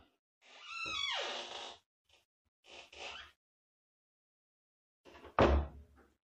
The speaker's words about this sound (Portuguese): Minha porta range igual um demônio.